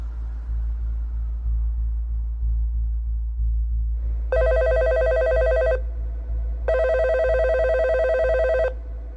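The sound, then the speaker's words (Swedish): A telephone rings twice in clear, evenly spaced bursts of about a second and a half each, over a steady low rumble, with no one speaking. “I mars 2005 ringer en upprörd mamma till polisen i Palm Beach, Florida.”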